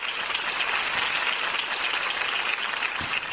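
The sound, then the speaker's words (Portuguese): Sustained applause from a crowd at an award ceremony, a dense, even wash of many hands clapping at once, steady and fairly loud throughout with no voices standing out. “Parem de aplaudir, por favor.”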